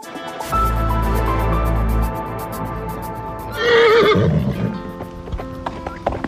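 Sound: horses neighing and galloping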